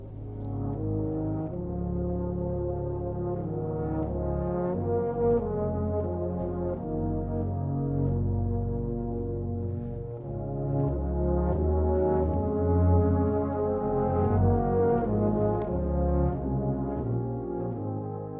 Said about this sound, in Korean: 어, 영화 프레스토프에서 데니보의 오리지널 사운드 트랙 들었습니다. 네. 여기서 지금 뭐 들으셔서 아시겠지만 노래를 부르는 게 아니라 네. 연주라는 대목인데요.